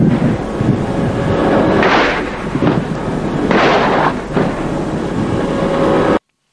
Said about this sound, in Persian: نفتکشی که ملاحظه میکنید زیر بار آتش کاتیوشاهای نیروی دریای سپاه قرار گرفته و انفجارهای حاصل از برخورد راکتها بر روی پل فرماندهی و عرشه اون کاملا مشخص است